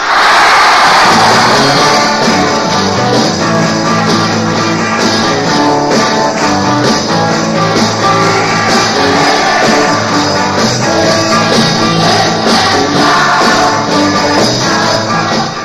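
A crowd of about 2,500 fans screams continuously and loudly in the afternoon in the Veilinghal Op Hoop van Zegen in Blokker, North Holland, a shrill wall of cheering that never lets up, with music playing underneath throughout.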